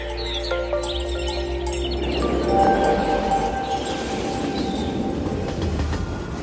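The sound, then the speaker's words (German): A train runs steadily along the rails, a loud rumbling roar with metallic squeals and faint clinks, with no voices. “Als wir aus dem Zug steigen, sehen wir Autos.”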